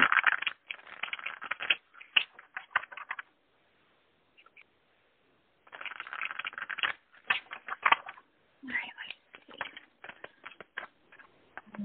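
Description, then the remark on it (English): Crisp rustling and snapping of a deck of self-care oracle cards being shuffled in bursts, with short pauses between, then quieter slides and taps as cards are drawn; no one speaks. “let's pull on the um, self care cards and see what we have.”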